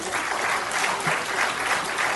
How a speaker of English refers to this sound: Can I, you can clap for the Lord. Go ahead. I'll wait.